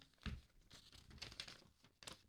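A small slip of paper, drawn from slips numbered 1 to 5, is unfolded, giving a few soft crinkling and rustling bursts over a couple of seconds, fairly quiet with no voices.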